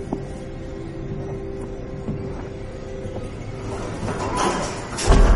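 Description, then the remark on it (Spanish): A lift's sliding door closes in a residence hallway: a steady mechanical hum with a faint whine, then a rising rattle as the panel slides shut, ending in a dull thud. “La puerta se cierra.”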